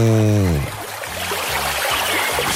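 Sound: running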